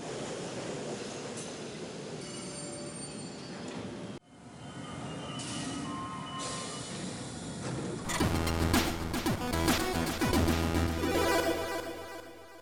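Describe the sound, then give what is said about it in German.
U-Bahn subway train ride sounds from a video game, travelling to Marienplatz in Munich: a steady rolling rumble and hiss, cut abruptly twice, with the last stretch louder and carrying a whining motor tone and rhythmic clatter. No talking. “Also setzen wir uns wieder in die U-Bahn und auf dorthin.”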